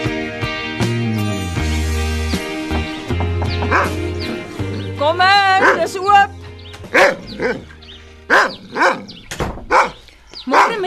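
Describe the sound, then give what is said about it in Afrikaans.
A dog barks repeatedly and loudly, several sharp barks in a steady run, preceded by high, wavering whine-like yelps over a low, sustained tonal background. “Hy is 'n hond. Honde blaf.”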